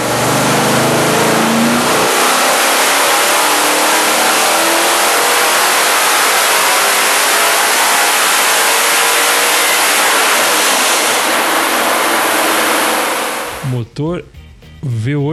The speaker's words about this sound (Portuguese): 2008 Ford FE 427 Kemmer. Foi o motor que o, a Ford desenvolveu para pegar o, o da Dodge na NASCAR e acabou banido, não, não, não puderam usar ele na, na NASCAR, mas os motores que foram feitos acabaram indo parar em, nos carros de arrancada